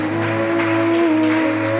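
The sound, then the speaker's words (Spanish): A church audience applauding loudly for the Lord, a dense, steady wash of many hands clapping at once over a sustained low musical drone, with no one speaking. “Dele ese aplauso bien fuerte al Señor.”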